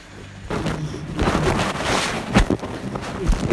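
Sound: rain falling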